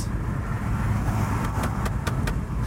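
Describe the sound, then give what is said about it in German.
Loud, steady car road noise pours in through an open window that has slid down again, a constant low rumble and rushing hiss, with a few sharp clicks or ticks toward the end. No one speaks. “Ich höre jetzt auch wieder auf und es ist total laut, weil diese verfickte, fotzige Scheibe wieder runtergerutscht ist.”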